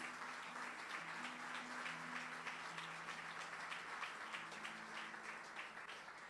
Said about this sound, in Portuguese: Dê uma grande salva de palmas a Jesus.